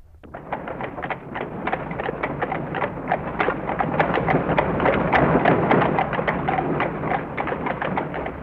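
Steady clip-clop of horse hooves pulling a carriage in İzmir, driven toward Buca, a brisk, regular rhythm of sharp knocks over a continuous rumble of rolling wheels, with no voices.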